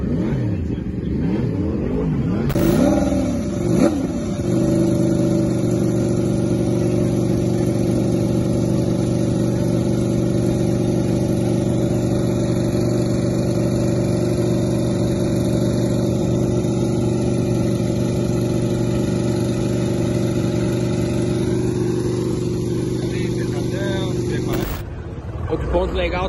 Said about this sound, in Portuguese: Moto do, Danilo do Danilo Petrucci de perto. Aí. Bonita a motoca, não? Vai entrar agora pro, treino da Superbike.